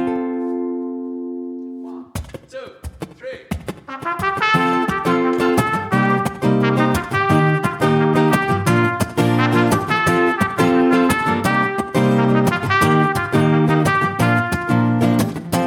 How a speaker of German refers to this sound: Okay, und jetzt kommt eine echte Trompete. Vorhin, was ihr gehört habt, war nur eine Mundtrompete, jetzt kommt eine echte.